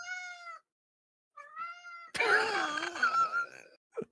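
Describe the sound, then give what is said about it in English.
A cat named Raz meows: two short, clear meows separated by a pause, then a longer, louder drawn-out yowl, ending with a brief chirp. “He says hi.”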